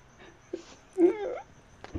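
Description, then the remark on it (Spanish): A dog whimpers in soft, high-pitched whines, one longer wavering whine in the middle between brief quieter yelps, begging for pan de muerto, with no talking. “Ay, perro, no antojes. está bien bueno el panecito de muerto.”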